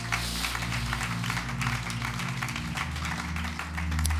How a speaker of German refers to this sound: Yes, lasst uns Gott einen Applaus geben.